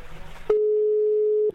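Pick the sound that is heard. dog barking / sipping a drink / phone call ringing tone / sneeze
phone call ringing tone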